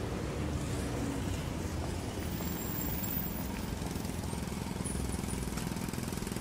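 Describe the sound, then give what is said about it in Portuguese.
A jackhammer pounds away in a rapid, unbroken rattle, its hammering steady and fairly loud throughout with a gritty mechanical roar and no voices. “Quando você está no verdadeiro silêncio, você percebe que quando houve uma britadeira, isso é quietude.”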